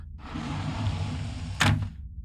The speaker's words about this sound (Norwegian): Fido kom seg tilbake til raketten og inn til Laika. Laika lukka igjen døra,